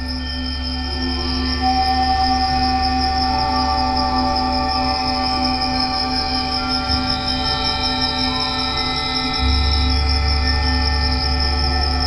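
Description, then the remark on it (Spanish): Crickets chirp steadily at night in Baja California Sur in a dense high trill, layered over sustained tonal drones and a deep low hum from quartz and crystal instruments, strings and circuits, with no talking. “Las ventanas armónicas de cuarzo, instrumentos de cristal, cuerdas y circuitos acompañan a una algarabía nocturna de lechuzas y grillos en Baja California Sur.”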